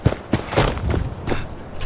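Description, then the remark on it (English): Several irregular thudding footfalls and landings, fairly loud, as a video game character jumps down ledges, over a faint steady electronic hum with no talking. “I'm just gonna jump down things like a billy goat.”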